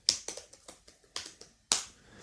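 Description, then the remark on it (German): Typing on an Apple computer keyboard: a quick, uneven run of sharp, crisp key clicks, fairly soft, with one louder tap near the end and no talking. “Mein, mein Tippen hört sich so an.”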